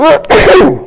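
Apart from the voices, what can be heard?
sneeze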